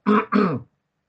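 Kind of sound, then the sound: human body sound, sneeze or cough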